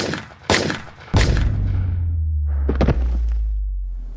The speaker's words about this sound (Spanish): Hubo caos, gases lacrimógenos, gritos, y de repente se escucharon un par de disparos.